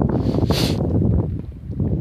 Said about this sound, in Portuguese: Tá ventando aqui, entrou um cisco.